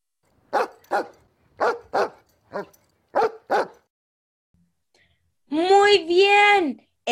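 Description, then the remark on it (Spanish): A dog barks six times in quick pairs, sharp, then goes quiet before a person briefly starts speaking. “Este sonido corresponde a un perro.”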